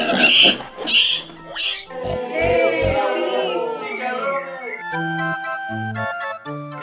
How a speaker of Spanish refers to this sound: Yo les traigo cerdos, porque esos sí llegan al estómago. Cerdos bien gorditos.